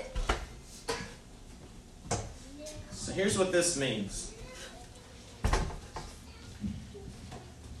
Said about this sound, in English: I'm going to set these chairs up. Pray for me. All right? Set these chairs up here. Okay?